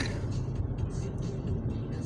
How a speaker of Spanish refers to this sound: Mira, aquí acelero un poco. Vengo en un Centra 2021 color azul eléctrico, le podemos llamar. Quemacocos, asientos de piel, nuevecito.